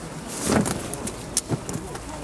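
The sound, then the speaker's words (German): Umbrellas being opened outdoors in rainy weather during a tour of a village of about 3,000 people on the Weser River: a rustling swish of fabric followed by a few sharp snaps and clicks over a steady background hum of wind and traffic. “Wie ihr hört, spannen wir die Regenschirme auf.”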